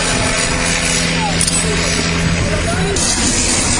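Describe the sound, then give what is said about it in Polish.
A First World War Sopwith Triplane fighter plane takes off, its engine a loud, steady droning roar with a rough buzzing edge that holds constant for the few seconds heard. “No i startuje właśnie z Sopływ Freeplane.”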